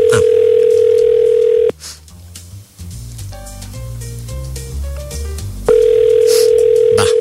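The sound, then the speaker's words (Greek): A telephone ringback tone of an outgoing call: a steady, fairly loud electronic tone plays, breaks off for a few seconds of soft melodic notes, then resumes. No one speaks. “Χτυπάει τώρα, άντε να δούμε.”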